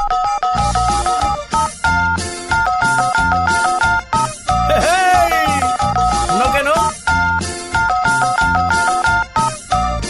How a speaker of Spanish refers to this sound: Sí, pero no cualquiera convierte su teléfono en un teclado y se avienta unas cancioncitas usando la marcación.